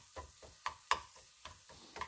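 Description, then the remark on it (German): Onions sizzle softly in a frying pan of hot butter as they brown, a steady low crackle broken by several sharp scraping clicks as a spatula stirs them. Fairly quiet, with no talking. “Dann hauen wir mal die Zwiebeln damit rein. Und so rösten die mal an.”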